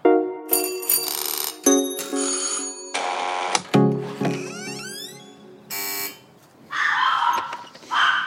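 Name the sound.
doorbell ringing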